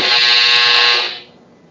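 A doorbell buzzes once in a loud, harsh, steady tone lasting about a second, then cuts off and fades into quiet background noise. No one speaks over it.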